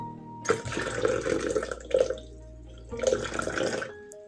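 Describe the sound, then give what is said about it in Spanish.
Gentle trickling water from a small stream at night, heard in two bursts separated by a brief lull, with splashy, bubbling texture and no voices. “Llegó la noche y el niño junto a su caballo llegó a un pequeño riachuelo.”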